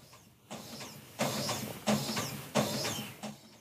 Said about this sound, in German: Ich glaube, das ist der Drucker. Das ist manchmal ganz komisch. Wir haben so einen Drucker, der reinigt sich manchmal mitten in der Nacht selber.